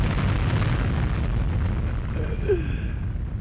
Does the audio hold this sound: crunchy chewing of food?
no